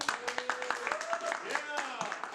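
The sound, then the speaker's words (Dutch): Scattered hand claps from a live show audience ring out in a steady patter, mixed with voices calling and cheering, fairly quiet; the audience of the live show Jakke Doe Maar. “Ja, applaus.”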